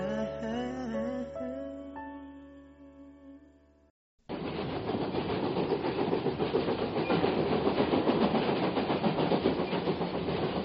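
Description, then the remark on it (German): A few seconds of melodic music end abruptly, followed by one of four regional trains in the mountain regions of western Hunan Province running on tracks: a loud, steady rumble with rhythmic clickety-clack rattling that continues to the end. “Im Zeitalter von Hochgeschwindigkeitszügen verkehren in den Bergregionen im Westen der Provinz Hunan vier Regionalzüge, die täglich Passagiere in armen Bergregionen hin und her befördern.”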